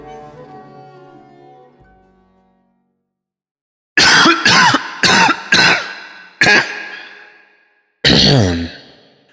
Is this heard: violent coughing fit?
yes